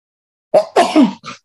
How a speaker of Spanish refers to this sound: Voy a estornudar. Perdón, voy a estornudar otra vez.